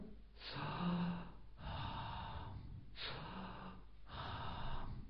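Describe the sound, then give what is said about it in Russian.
Four slow, deep breaths, alternating long airy inhales and exhales in a steady rhythm, with no talking: breathing the so-ham mantra. “Со, хам, мантра.”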